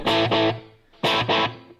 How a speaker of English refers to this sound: Very cool. Can you get the Echoplex to do just one repeat?